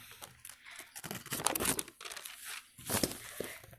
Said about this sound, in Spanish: Momentico, estoy tratando de... Las hojas se me pegan en la Biblia.